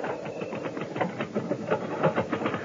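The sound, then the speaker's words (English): Rapid typing by a gossip columnist, a steady clatter of mechanical keystrokes in a quick, even rhythm with no pauses, heard alone without any voices. “That's her typing.”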